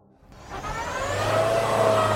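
The engine of a large, heavy armored cash-transport vehicle revs hard and steadily climbs in pitch, loud, with a rough churning noise as its wheels struggle in deep black-earth mud ruts during the muddy season near Vuhledar. No one speaks.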